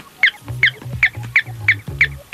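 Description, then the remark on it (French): An invented electronic artificial bird, an adjustable device for having birdsong at home, chirps six times in a steady, identical rhythm, each bright tweet clear, with a low mechanical buzz humming between the chirps. “mais qui aimeraient quand même avoir chez eux le chant d'un oiseau. Alors j'ai inventé donc cet oiseau qui est très propre, qui est réglable, et on peut le faire plus gai,”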